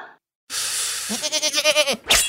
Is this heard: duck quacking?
no